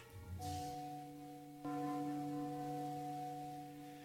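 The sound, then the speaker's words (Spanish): A large bell tolls slowly at midnight, two deep resonant strikes about a second apart, each leaving a long, humming ring that hangs in the air. No one speaks. “se escucharon campanadas anunciando las 12 de la noche.”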